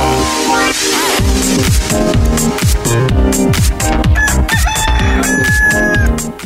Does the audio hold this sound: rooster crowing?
yes